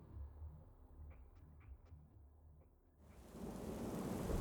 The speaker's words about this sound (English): The roar of the rain redoubled, layered over with distant thunder. Some drops spattered on the polished marble